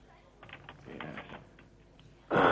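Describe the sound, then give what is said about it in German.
Rapid clicking of fingers typing on a keyboard, a quick burst of soft keystrokes, followed by a sudden louder rush of noise at the end. “Jungs, ich höre da Finger über die Tastatur fliegen, lass es.”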